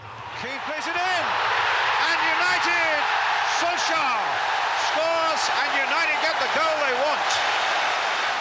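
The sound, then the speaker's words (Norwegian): A busy indoor gym with many people training, steady background commotion, repeated sharp thuds and bouncing impacts scattered throughout, and overlapping echoing voices and high squeaks. “og som du hører så er det ikke noe problem at det er mange der.”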